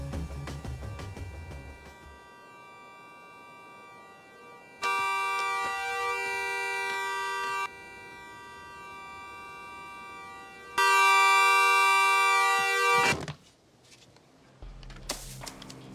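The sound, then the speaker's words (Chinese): A man's own car horn suddenly blares in two long, loud, steady blasts, each lasting a few seconds with a brief pause between, over quiet low background noise and no talking. “正要等待下一个机会，没想到自己车的喇叭突然响起来。”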